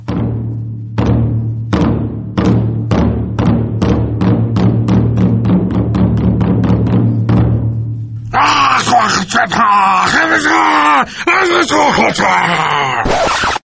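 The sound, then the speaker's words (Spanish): Accelerating percussive taps over a steady low drone give way to a person imitating a prehistoric wolf, growling and groaning in loud, wavering, howl-like cries for several seconds. “Que en lenguaje de lobo prehistórico significa ¡Sal de ahí, pequeño animal, que te voy a comer!”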